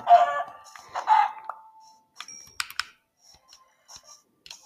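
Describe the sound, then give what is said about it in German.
A video game duck clucks in a few short bursts, followed by scattered sharp clicks like keyboard typing. No one speaks. “Hier ist eine Ente.”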